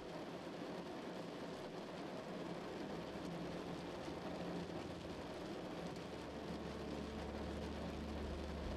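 Steady, dense rain patters continuously on a window, a soft even hiss with a low rumble underneath. No voices, just the constant wash of rain throughout.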